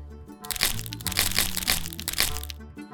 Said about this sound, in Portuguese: Vejam, meninas, quantos galhos de árvores quebrados!